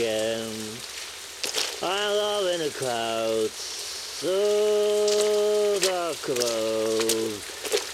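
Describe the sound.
Steady rain hisses throughout, with lightning, a constant wash of noise beneath a voice singing long, sustained notes in several phrases.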